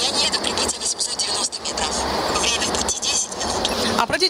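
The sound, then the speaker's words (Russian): Loud, steady outdoor street noise with a constant traffic roar and rumble filling the whole stretch, and indistinct voices mixed into the din. “внимание, что на улице достаточно шумно, и навигатор хорошо распознает команды.”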